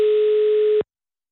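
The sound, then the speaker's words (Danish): A steady, mid-pitched telephone tone sounds alone for just under a second, loud and unbroken, then cuts off abruptly into silence, like a line signal while a call is being placed. “Skal jeg ringe til ham med det samme?”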